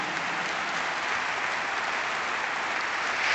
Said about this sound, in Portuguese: aplausos aqui no pavilhão do Casal Vistoso, já há pouco, quando passou o filme, também a convenção levantou-se numa homenagem eh, sentida àqueles que partiram.